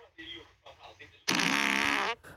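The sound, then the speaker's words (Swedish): A loud, buzzy fart lasting close to a second, played back from a recording, preceded by quieter chatter-like sounds and ending abruptly. “ska vi se om du kan gissa vem som fes”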